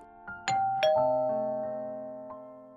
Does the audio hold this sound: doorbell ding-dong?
yes